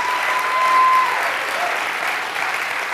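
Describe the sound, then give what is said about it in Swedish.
A big round of applause from a crowd for the speaker's wife, steady and dense clapping that holds at a fairly loud level for the full three seconds, with a faint tone briefly audible near the start. “jag vill också kan inte vi bara ge en stor applåd till min underbara fru?”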